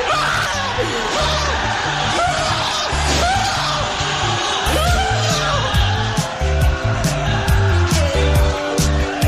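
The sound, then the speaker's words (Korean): High school students in a classroom erupt in loud, sustained cheering and yelling as they watch the impeachment vote result on TV. Their voices overlap with whoops and shouts, steady in loudness throughout, over a low rumbling undertone. “방금 들으신 것은 탄핵 순간을 TV로 지켜보던 한 고등학교 교실에서 터져나온 학생들의 함성입니다.”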